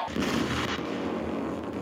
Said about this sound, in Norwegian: Det smeller, og sterk strøm slår over så gnistene fyker i lufta.